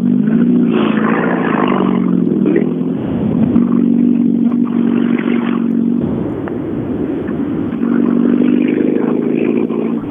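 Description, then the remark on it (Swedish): Steady engine hum of cars passing at a road junction at the edge of the village of Lillsjöhögen, with a loud low drone that swells and dips as vehicles go by, plus some clattering rattles; no one speaks. “Ja, lite bilar har vi här också.”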